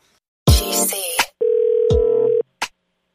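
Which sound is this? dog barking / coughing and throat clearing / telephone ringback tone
telephone ringback tone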